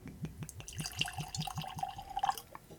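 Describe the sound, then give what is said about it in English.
Russell's Reserve 13-year-old Kentucky Straight Bourbon Whiskey glugs from a freshly uncorked bottle into a glass in quick, even pulses, the pitch climbing as the glass fills. Moderately loud, with no one talking. “Let's go and get it poured”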